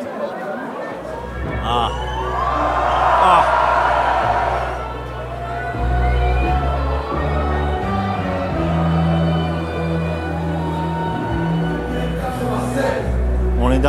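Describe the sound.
A loud, continuous crowd roar of cheering and excited voices as a concert begins and the performer takes the stage, with deep, booming bass tones from music pulsing steadily underneath for the whole stretch.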